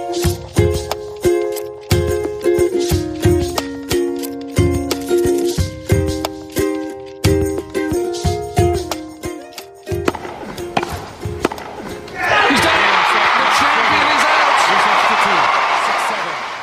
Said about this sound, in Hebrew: כשמקשיבים לקטע הזה שומעים רק שדרנים מדברים וקהל מריע, אבל כשמסתכלים על המסך רואים משהו אחר.